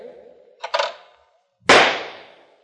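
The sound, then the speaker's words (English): A shotgun fires at skeet targets during a skeet match on a skeet field: a short, sharp double crack comes first, then a single loud, booming blast whose echoing tail fades out over about a second. “I'll try to make a contest out of this skeet match to make up for it.”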